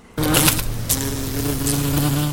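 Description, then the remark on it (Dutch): A steady buzzing of someone's own bees, which are quite wild at this time of year, fills the whole moment: a sustained droning hum with slight wavering pitch, loud and continuous with no talking over it. “Ja, sorry, mijn bijen staan vrij wild in deze periode van het jaar.”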